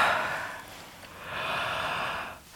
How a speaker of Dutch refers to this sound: Ja, gaap.